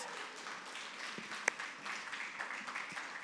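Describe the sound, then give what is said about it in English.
An audience applauds to welcome two pastors up as a panel, a steady wash of many hands clapping at moderate volume throughout, with one sharper, louder clap standing out midway. No voices are heard. “Can you give Pastor Glenn and Pastor Lisa a round of applause?”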